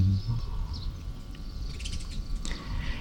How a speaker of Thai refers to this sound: เสียงนกมีทั้งวันมีทั้งวัน ฟังได้ทั้งวันเลยอยากจะไปฟังเพลงนี่แหละฟังเสียงนกร้องเพลง ฟังได้ทั้งวัน